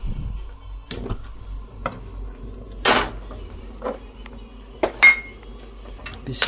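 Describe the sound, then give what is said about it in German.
Metal cookware clanks and scrapes a few times as a frying pan is handled and placed in the oven, with short sharp knocks and clinks spread over several seconds, over a low steady background hum. “Dazu setzen wir Pfanne im Ofen.”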